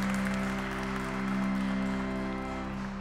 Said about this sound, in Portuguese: Viva todos os devotos de Nossa Senhora Aparecida! Uma salva de palmas bonita.